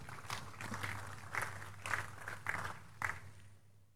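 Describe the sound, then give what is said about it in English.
A crowd gives the Lord a big clap after a prayer, clapping together in a steady rhythm, with a dense wash of many hands and regular louder beats roughly every half second, before it dies away at the end. “Give the Lord a big clap also.”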